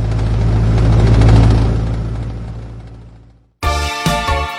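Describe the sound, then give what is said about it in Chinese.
A steady, rumbling airplane engine drone with low humming tones, heard from far off, swells then slowly fades away before a bright burst of music abruptly takes over. “佐罗莉突然竖起耳朵，嗡，远处隐隐约约传来飞机的声音。”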